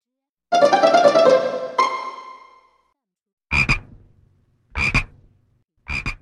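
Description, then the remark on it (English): A frog croaks loudly and close by: first a long, rattling, tonal croak, then three short, raspy croaks spaced about a second apart, with silence between them and no talking. “Clark had a frog.”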